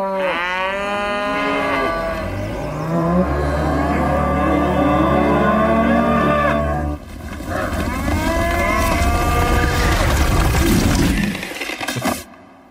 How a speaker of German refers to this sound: So toll. Da ist die Kuh.